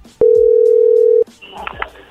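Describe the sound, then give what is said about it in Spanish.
A telephone dial tone sounds once as a steady, mid-pitched hum for about a second while a call is placed to a home phone, then cuts off abruptly, leaving faint line noise and a few soft clicks. “A ver, no le vamos a marcar ya el celular, ahora vamos a a marcarle a la casa.”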